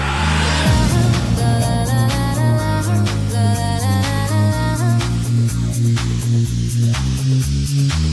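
A 2006 pop song playing loudly, with a pulsing synth bassline stepping between notes, bright layered synth chords and regular percussive hits keeping a steady dance beat.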